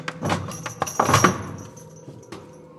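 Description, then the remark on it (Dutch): A fake door that does not open thuds and rattles as it bounces back, setting off a burst of jangling metal like small iron bells as a scare effect in a queue. The bells ring briefly before fading away. No one speaks. “En de deur gaat niet open, maar hij bounce naar achter. En dan gaat er een soort belletjes of eh, ijzeren dingen die, eh, ja, die gaan rammelen, waardoor je een schrik-effectje hebt.”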